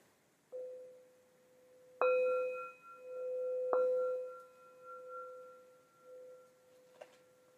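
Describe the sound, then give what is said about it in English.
A bell is rung for everyone, struck three times, a soft first strike and then two stronger ones, each leaving a clear mid-pitched tone that hums and rings on steadily, with no talking over it. “Uh, can ring a bell for everyone.”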